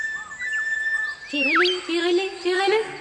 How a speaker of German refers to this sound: Kaum hatte er das gesagt, da hörte er einen Vogel singen.